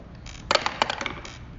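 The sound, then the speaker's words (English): Dice clatter across a hard tabletop in a quick burst of sharp clicks and rattles, tumbling for about a second before settling, fairly loud with no talking. “You can roll.”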